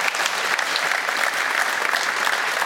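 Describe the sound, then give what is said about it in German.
Studio audience applause in Munich, a dense, steady wash of many hands clapping at once, loud and sustained throughout with no voices over it. “Er kriegt normalerweise hier einen Applaus aus München.”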